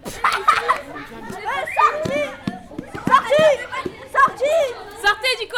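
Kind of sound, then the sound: crowd, pupils shouting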